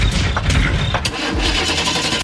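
A car engine cranks and catches, then settles into a loud, rumbling run with a few sharp mechanical clicks along the way; no voices.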